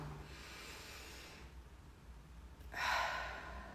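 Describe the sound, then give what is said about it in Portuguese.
A slow, deep breath: a soft airy inhale, a brief pause, then a louder, longer breathy exhale like a sigh. No one speaks. “Faz uma respiração profunda e solta de forma lenta para o teu cérebro oxigenar.”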